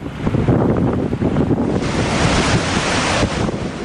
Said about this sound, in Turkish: Giresun'da fırtına nedeniyle 6 metreyi bulan dalgalar oluştu.